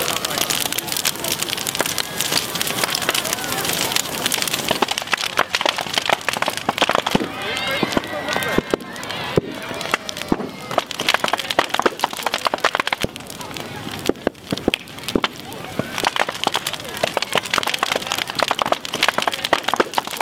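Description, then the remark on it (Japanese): A dondo-yaki New Year bonfire, marking the end of the New Year holiday, burns in the morning with a steady roar, dense with sharp, irregular crackles and pops throughout, while faint voices murmur in the background. “今朝はお正月の終わりを告げるどんど焼きのいい音”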